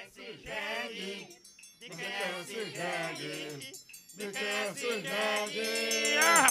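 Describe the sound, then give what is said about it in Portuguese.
A donkey brays loudly in a series of harsh, wheezing calls, the pitch rising and falling in bursts with short breaks between them, clear with no talking. “não é jegue não, é jumento.”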